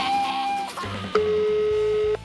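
Steady electronic phone tones sound in sequence, a sustained beep giving way to a longer, lower pitched tone with a low hum beneath, like an outgoing call waiting to connect.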